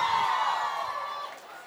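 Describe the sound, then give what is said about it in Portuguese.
A crowd cheers and applauds loudly at a show in Ribeirão as two performers are called onto the stage, a dense sustained wash of clapping and whoops that fades slightly toward the end. “Queria uma salva de palmas.”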